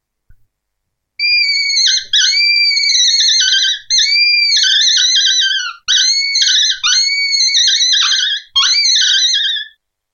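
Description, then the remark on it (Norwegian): A predator call imitates a roe deer fawn's distress cry, made by chattering the teeth up and down on the call's membrane: five loud, drawn-out, high-pitched plaintive wails with wavering, bending pitch and short breaks between them, heard alone without any talking. “Så Tenna skal liksom gnisse opp og ned for å få den klagelyden som vi får her nå.”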